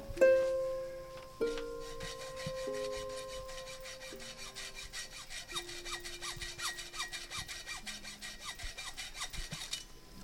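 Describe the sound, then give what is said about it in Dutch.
A small handsaw rasps steadily back and forth through metal, cutting through three small padlocks of the kind used on bicycle locks, in quick, even strokes, with faint ringing tones underneath. The sawing is moderately loud, and no one speaks. “Ze gingen met een, met een klein zaagje, eigenlijk een soort handzaag gingen ze die drie sloten doorzagen.”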